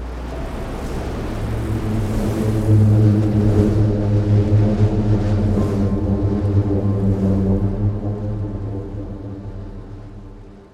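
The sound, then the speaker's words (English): A booming sand dune avalanche: a deep, steady droning hum with rich harmonic overtones, holding loud for about ten seconds before slowly fading out. No voices. “Sometimes this happens spontaneously when the wind picks up and creates these mini avalanches.”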